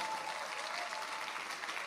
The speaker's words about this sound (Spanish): Bueno, bueno, pero en medio de este aplauso